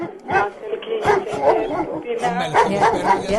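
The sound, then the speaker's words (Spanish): Several dogs bark in repeated short bursts, loud, mixed in with people talking and voices carrying over the top. “los perros ya faltaron.”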